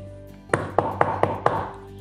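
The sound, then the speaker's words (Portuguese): Five quick, evenly spaced knocks on the door of a brick house, fairly loud, standing alone over a faint steady background hum. “O porco bateu na porta e grunhiu.”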